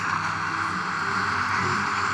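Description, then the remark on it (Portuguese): Steady, continuous ocean-wave noise from a baby sound machine, an even whooshing hiss that holds the same fairly loud level throughout, with no voices. “Depois tem o barulho do mar.”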